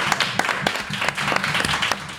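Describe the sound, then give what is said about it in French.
A live audience at La Cassette in Aubervilliers applauds at the end of a show, a dense crackle of many hands clapping at once with sharper individual claps popping through, steady and fairly loud for the whole stretch. “Vous pouvez vous applaudir encore.”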